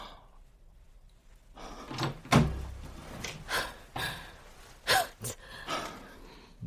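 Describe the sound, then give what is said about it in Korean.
The door of a room in a gosiwon (Korean study dormitory) is pulled open, starting with a dull thump of the latch and followed by several short knocks and rattles as it swings. No one speaks. “문 좀 열어봐. 지금 당장.”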